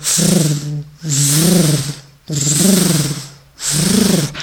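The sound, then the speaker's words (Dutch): Loud, droning electronic music with a whirring, fan-like texture, swelling in four repeating waves of buzzy hum and hiss, each lasting about a second with brief dips between. “Ja, het was natuurlijk elektronische muziek, maar ik hoorde een ventilator.”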